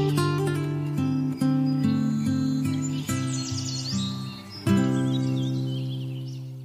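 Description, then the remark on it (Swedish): Birdsong at dawn in Stockholm: bright bird chirps and twittering calls flutter in the high range, layered over a steady, sustained low tonal drone that swells with soft pulses; no one is talking. “Det är häftigt att vara ute och liksom gå hem när det är lite småljust och, och fågelkvitter.”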